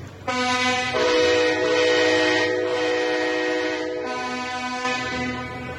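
Loud, sustained blaring of horns from farmers' tractors and truckers' lorries at a protest in Amsterdam, honking together in a long continuous chorus, with overlapping tones shifting slightly over several seconds and no talking.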